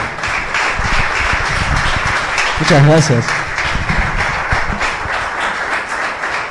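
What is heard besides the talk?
audience applause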